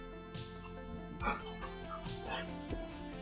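A dog barks in several short, sharp bursts spaced irregularly, with a few higher yips mixed in, over a steady humming background.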